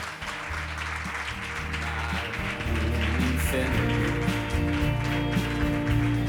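A crowd claps steadily for several seconds, a dense wash of applause that grows slightly louder partway through, with low, sustained music playing underneath.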